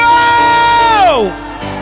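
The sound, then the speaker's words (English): A crowd of voices cries out together during a prayer in one loud, sustained shout, holding a steady high pitch before sliding downward and trailing off into quieter murmuring. “Come on, cry out, say burn it out. Now scream out, whoa!”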